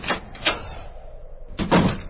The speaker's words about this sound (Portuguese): e fechou a porta.